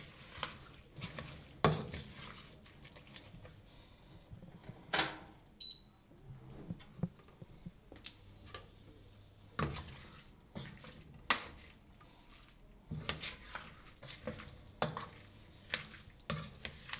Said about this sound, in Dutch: Ik ga hem dan vaak eerst een beetje erdoor roeren en dan zet ik hem soms nog even wat hoger. dat ziet er al vrij goed uit.